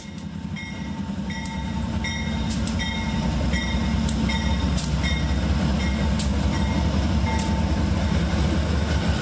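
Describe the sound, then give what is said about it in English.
A passenger train rumbles steadily along the rails between Lakeland and Kissimmee in pouring rain, a low continuous roar with rhythmic clacks and faint metallic squeals rising above it, heard from on board. “the train has to make two stops in order to pick up everybody”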